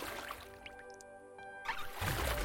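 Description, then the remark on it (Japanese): Oars dip and pull through water as a person rows a small boat out over the dark sea at night, a soft slosh followed by a louder splash at the end, over a steady sustained musical tone. “再びリコが糸を手に持ち高谷がオールをこぎ出しました”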